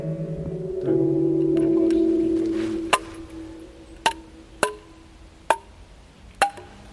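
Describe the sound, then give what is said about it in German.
A short jingle melody tapped out on an outdoor forest piano: a sustained low chord rings first, then five separate struck notes follow at an uneven pace, moderately loud with no talking. “Kannst du damit den Schritttempo-Jingle spielen?”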